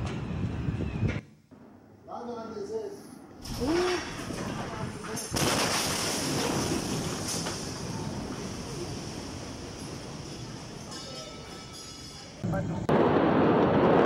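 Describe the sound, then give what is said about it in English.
A massive explosion in Beirut, filmed on video from at least a mile away, erupts suddenly, a loud blast that rolls into a long, roaring rumble lasting several seconds, with brief voices heard just before it. “this last video, that section, just listen to the windows of the people who are just filming from who knows how far away, at least a mile away.”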